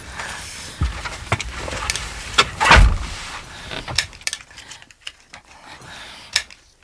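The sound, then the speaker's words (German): A car door shuts with a heavy thump amid scattered clicks and rattles, then a few quieter clicks follow as the car's engine fails to start. No one speaks. “Ich mach schon mal den Wagen an.”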